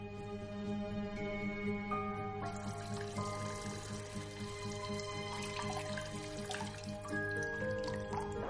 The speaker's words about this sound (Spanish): Rápidos caudalosos, cascadas espumosas, un rumoroso arroyo.